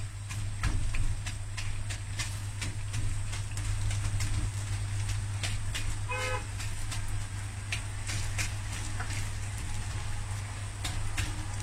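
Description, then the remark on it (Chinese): Yuanxiao glutinous rice balls deep-frying in oil until golden and crispy, a steady hiss with dense, irregular crackles and pops over a low constant hum, and no one speaking. “哎，大家可以听到现在这个元宵开始 酥脆，听到了吗？跟点心一样的声音，是吧？”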